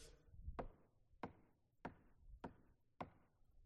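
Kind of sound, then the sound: impact, knocking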